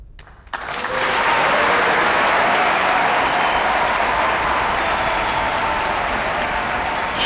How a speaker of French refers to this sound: Sonata pour deux, piano et percussion, c'était le final, bien sûr, parce qu'il y a eu d'applaudissements euh, après l'interprétation de Martha Argerich, Daniel Barenboim, González Terrejón et Lef Lofus.